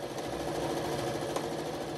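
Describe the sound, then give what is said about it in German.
A sewing machine stitches two white bedsheets together, running steadily, its rapid mechanical whirring and fine chattering rhythm holding an even, moderate loudness throughout, with no voices. “Ein paar Leute holen eine Nähmaschine aus dem Haus und nähen zwei weiße Bettlaken zusammen.”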